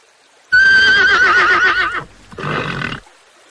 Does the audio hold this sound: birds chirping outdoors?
no